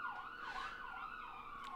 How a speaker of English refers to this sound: We're With these sirens that. pass, yeah, yeah. yeah. That's going to happen. Yeah, well, you know. we live in a city. There's nothing to be done. We're on John Street, so. sometimes, sometimes sirens go by. It's fine.